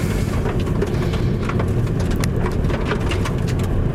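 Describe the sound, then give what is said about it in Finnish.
Loose gravel from a sanded gravel road crackles and pings against a car's inner wheel arches and fender liners in irregular bursts, heard from inside the otherwise quiet car over a steady low road rumble, fairly loud and continuous with no talking. “Tuo hiekan rapina, se kuuluu sisälokasuoista ja lokasuoista todella äänekkään.”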